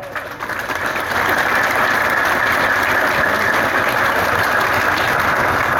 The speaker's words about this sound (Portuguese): E aqui os nossos deputados estaduais, a Dani, o Vinícius, o Madalena e o Mauro Bragato, uma salva de palmas, pessoal.